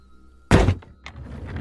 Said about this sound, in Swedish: Något tungt ramlade i golvet ovanför henne och rullade över golvet.